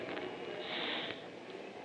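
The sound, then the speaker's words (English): A person imitates with their voice a hissing sound like a Fourth of July rocket, a steady breathy rush of air lasting nearly two seconds that brightens and intensifies in the middle before easing off, moderately loud. “A hissing sound like this.”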